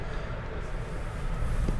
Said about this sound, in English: Trains slowed right down. Admittedly, the track is very bouncy at this stage, so it could well be that we have to slow down to a slower, safer speed. It is a double track stretch of line.